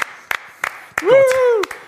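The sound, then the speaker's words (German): A handful of sharp, evenly spaced handclaps ring out, with a sustained vocal cry rising over them midway, like a brief, small burst of applause for former Olympic ice hockey player Rick Goldmann. “zehn Applaus, war ja zweimal bei Olympischen Spielen.”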